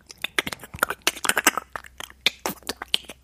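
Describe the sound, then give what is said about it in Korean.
Someone imitates a frying egg with their mouth: a dense run of sharp, irregular crackles and pops, spitting and sizzling like hot oil, lasting a few seconds with no talking. “계란 후라이 튀기는 소리.”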